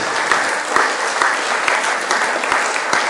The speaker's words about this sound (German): klatschen. Gott die Ehre dafür.